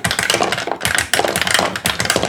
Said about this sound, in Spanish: Estoy cogiendo los mismos dados, pero en versión pequeña, ¿vale? Que lo sepáis.